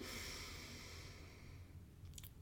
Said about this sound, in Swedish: Okej, okay, vi börjar med att andas in djupt och låt magen ta plats.